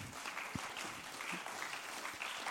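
An audience claps steadily for a couple of seconds to welcome an interview guest onto the stage, a dense, even wash of many hands with no pauses and no voices standing out.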